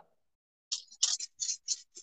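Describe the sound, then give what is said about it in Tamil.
Bursts of crisp, crackly crinkling from a Cadbury chocolate bar wrapper held in the hand, several quick rustles in a row after a brief silence, moderately loud, with no one speaking. “இதோ இது கையில இது கேட்பரி பேப்பர் இருக்கு அவ்வளவுதான் ஓ அதை மட்டும் கொஞ்சம் அமைதியா வச்சு ரொம்ப இரிட்டேட் ஆகுது சவுண்டு”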